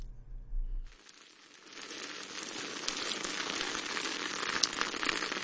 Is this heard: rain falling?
yes